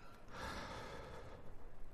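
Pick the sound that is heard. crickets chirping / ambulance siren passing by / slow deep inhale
slow deep inhale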